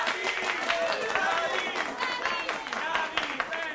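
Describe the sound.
Steady, loud audience applause for a band carries through the whole stretch, a dense wash of clapping mixed with cheers and whooping voices rising and falling on top.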